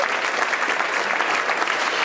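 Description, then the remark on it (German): Steady applause from a crowd marking 17 clean sheets and the matching donation from Polarweiß into the Phrasenschwein, many hands clapping in a dense, continuous wash that stays loud and even throughout, with no voices standing out. “Das gibt, glaube ich, mal einen Applaus an dieser Stelle.”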